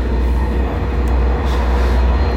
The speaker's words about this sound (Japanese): で今日はちょっと今電車の中で